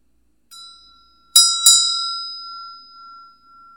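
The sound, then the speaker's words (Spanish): A meditation bell for a Buddha Shakyamuni meditation practice rings softly, then gets struck twice more in quick succession, its clear metallic tone sustaining and slowly fading into silence. No voices are present. “Y ahora vamos a imaginar que todo lo que está frente a nosotros se disuelve como el sonido de la campana.”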